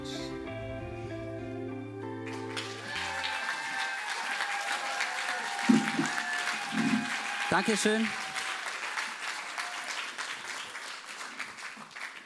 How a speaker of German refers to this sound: lass uns aufstehen und lass uns dem Raffi einen großen Applaus geben